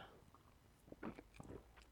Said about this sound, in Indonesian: nyeruput dulu bentar ya